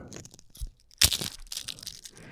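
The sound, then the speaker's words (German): A 'bad luck' fortune cookie with a dark-humor message cracks open: light crinkling, then a sharp, loud snap followed by a few seconds of dry crumbling crunches. No one speaks. “Also knackfrisch, wie man hören konnte.”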